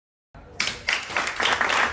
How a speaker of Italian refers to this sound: Voglio fare un applauso a tutte le persone a cui piace la fregna.